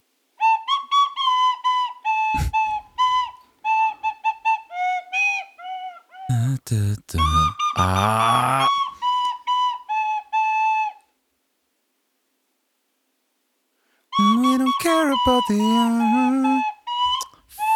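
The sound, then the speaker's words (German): A catchy song melody from the FIFA 2004 video game soundtrack whistled loudly, in quick rhythmic phrases, with a short pause before the tune resumes. A person is imitating the music rather than playing a recording. “Das war FIFA 2004 Soundtrack.”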